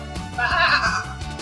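A single sheep bleats once, a wavering, nasal cry lasting under a second, fairly loud against a quiet background.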